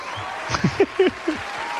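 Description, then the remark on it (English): A brief, sparse burst of clapping, just a handful of claps over under two seconds, mixed with short rising vocal whoops and cheers. “We'll give it a little bit of a clap”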